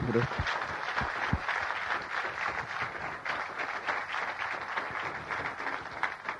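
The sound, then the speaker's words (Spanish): An audience applauds the Lord steadily, a dense, even wash of many hands clapping that holds at a constant level for several seconds with no talking over it. “Pues le damos un aplauso al Señor que se merece tan”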